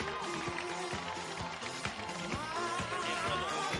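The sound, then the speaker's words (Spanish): Loud, steady applause from a crowd at the 2015 San Daniel Carmen festivities in Candelaria, as the queen candidates leave the stage, fills the whole stretch: a dense hiss of clapping layered with music that carries a regular thumping beat and sustained tones. “Fuertes aplausos.”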